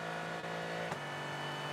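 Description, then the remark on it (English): The V8 twin-turbo engine of a race car roars loudly and steadily as the car accelerates down the back straight, its droning pitch holding strong, continuous with no voices over it. “v turbo engine pulling nicely down the back straight.”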